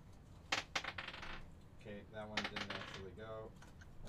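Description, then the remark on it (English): A die, dropped by hand rather than rolled, falls onto a table, giving a quick flurry of sharp clacks as it bounces and rolls to a stop, landing on 19, followed by people talking. “I, I didn't roll a dice because I was like, I don't want to roll this one. So I like uh, dropped it and it rolled a 19 and I was like, oh, I wasn't, that didn't count.”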